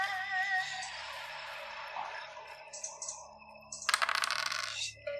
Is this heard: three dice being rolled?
yes